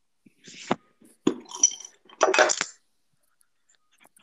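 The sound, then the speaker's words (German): Glasses clink together in a toast in a few sharp, bright taps, one with a brief ringing tone, followed by a quick cluster of rattling clinks before it falls quiet. “Wahrscheinlich ein bisschen gehört in meiner Aufnahme.”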